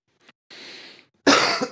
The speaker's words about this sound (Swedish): Förlåt, jag har eh, hostat så mycket.